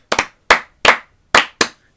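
Sharp, close hand claps ring out on their own, six in all: a quick double clap to open, then single claps at uneven intervals with brief silences between.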